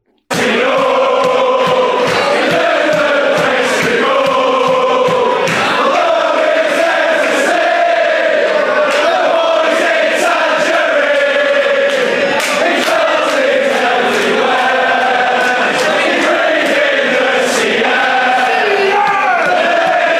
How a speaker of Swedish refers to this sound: Och vi kan väl lyssna på hur det lät i katakomberna i Stoke-on-Trent när Blackpool-supporterna körde igång.